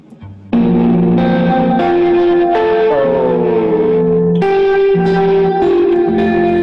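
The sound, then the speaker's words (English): Sustained chords ring out one after another through a washy reverb, each tone smearing into a long, blurred tail so the notes blend together. Loud and steady, with no voices. “I, I like that because it's it's just kind of it's kind of washy.”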